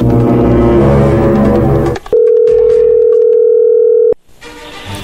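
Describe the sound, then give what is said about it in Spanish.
A telephone call ringing through to a woman about a chocolate promotion: one steady, mid-pitched electronic ring tone holds for about two seconds, loud and unbroken, after a dense burst of music-like sound and before background noise resumes. “Perfecto, bueno, ahí entró la llamada.”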